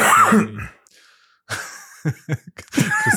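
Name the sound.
cough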